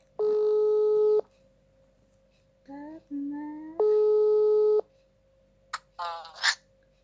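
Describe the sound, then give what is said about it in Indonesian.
An outgoing phone call's ringback tone, calling a friend, sounds twice, each a steady one-second buzz separated by a few seconds of quiet, with a brief voice in the gap and short sounds near the end. “Daripada lama-lama langsung aja ya kita telepon. Semoga diangkat nih.”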